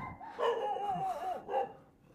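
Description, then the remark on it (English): A dog barks and yowls in two drawn-out, tonal bursts, fairly quiet, with no talking over it, barking at a person coming home late. “Uh, doggos keep barking at me.”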